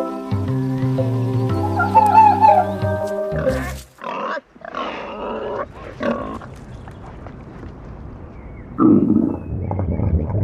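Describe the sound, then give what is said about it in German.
A loud, drawn-out stomach growl from hunger, low and gurgling with a wobbling, almost grunting tone, rumbling in several bursts before trailing off into quieter gurgles and a final swell. “Was ist denn das für ein Geräusch? Ah, oh, das ist mein Bauch. Ich hab Hunger.”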